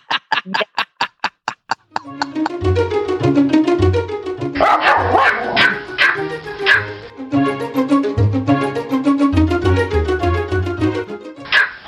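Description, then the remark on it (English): Hedwig, a Pomeranian, barks and yips in quick, repeated bursts, loud, set against a rhythmic musical backing after a short run of ticking beats. “And speaking of heating and cooling, I think it's time to call Hedwig the world's only podcasting Pomeranian.”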